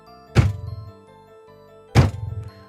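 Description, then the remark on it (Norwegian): Two dull, soft thuds about one and a half seconds apart, like slow footsteps, each with a brief low rumble trailing off, over a faint steady hum, coming from a living room and getting closer. “Etter litt stillhet hører hun de myke dunkene igjen.”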